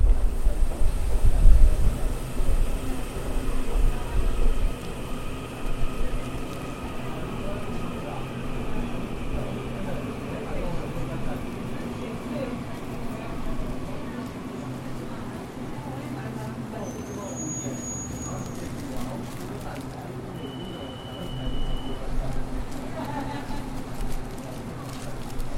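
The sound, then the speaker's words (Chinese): An electric multiple unit commuter train pulls in slowly with a low, steady rumble and faint droning motor whines, then its doors open with a few short high-pitched beeps before a brief lower tone. “有没有听到电联车开门的声音呢？”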